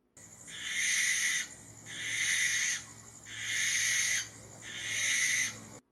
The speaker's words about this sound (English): It would probably scare the the bejesus out of you. I left a gap there so you could put in a sound of uh, an eastern screech owl. Yeah, I figured. Or a barn owl. they both sound pretty scary.